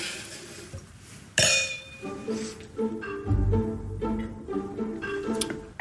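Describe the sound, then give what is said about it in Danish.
A sharp glassy clink of glasses raised in a toast rings out, followed by softer clinks and low rumbling handling sounds, with faint voices in the background. “Skål.”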